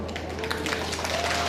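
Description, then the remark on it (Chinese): A large crowd at a Taiwanese presidential campaign rally applauds steadily after Lai Ching-te explains that DPP stands for democracy, peace and prosperity, a dense wash of many hands clapping at once with faint voices mixed in, holding at an even, fairly loud level throughout. “赖清德对 DPP 的诠释获得满场掌声。”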